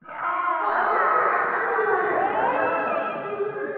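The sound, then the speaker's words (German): A dense crowd of people screaming and wailing together, loud and sustained, with overlapping anguished voices filling the whole stretch without pause. “Okay, ihr hört immer noch Geschrei.”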